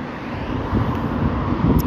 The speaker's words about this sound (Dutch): Ik hoor je niet, er rijden auto's langs.